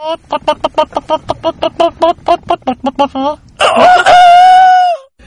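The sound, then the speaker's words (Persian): A person's voice imitates a rooster: a quick run of about fifteen rhythmic, clucking bursts, then one long, strained crow that rises and trails off. Loud, with no other sounds. The person is one of a group acting like chickens. “ولی خب جوینده یابنده است و بالاخره یه گروه پیدا کردن که اینا انگار ذاتا مرغ بودن از یه جایی به بعد فهمیدم یکشون خروسه”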